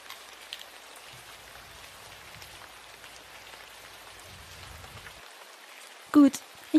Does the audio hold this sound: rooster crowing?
no